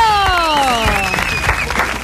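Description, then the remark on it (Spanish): Steady studio applause on the live Radio Sucesos show welcoming guest Cholo Guiñazú fills the whole stretch, a dense crackle of many hands, while a bright falling whistle-like sound-effect tone slides downward over it in the first second. “Pocas veces me aplaudieron así.”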